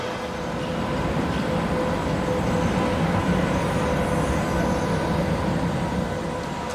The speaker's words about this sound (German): Das war ein vorbeifahrendes Auto vom Mensch gefahren.